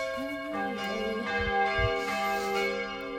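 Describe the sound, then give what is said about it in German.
Church bells ring continuously, their overlapping tones sustained and resonant, moderately loud and steady throughout, with some low rumbling in the background and no speech. “Ist gerade die Kirche.”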